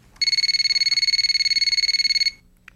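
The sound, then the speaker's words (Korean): A telephone at the teacher's desk rings with an urgent call, a rapid electronic trill: a high, steady, buzzing tone pulsing quickly for about two seconds before cutting off. No one speaks. “그러던 어느 날 선생님의 자리로 급한 전화 한 통이 걸려왔습니다.”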